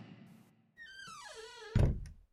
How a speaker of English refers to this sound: Oh, wait. The bedroom door. He's coming.